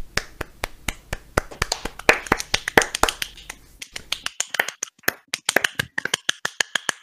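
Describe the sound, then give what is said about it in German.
Light applause from a few hands as a third guest is brought on: sharp, crisp claps in an uneven patter, dense at first, then thinning into scattered individual claps. No voices are heard. “Applaus.”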